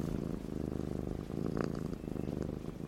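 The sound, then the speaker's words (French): A cat purrs steadily, a low continuous rumble with a gentle rhythmic pulse, heard on its own without any talking. “Ça marche, professeur, il ronronne.”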